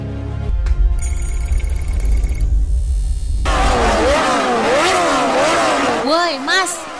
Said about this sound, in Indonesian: Knalpotnya tuh udah kenceng loh, nggak usah diblayer-blayer gitu loh, berisik banget.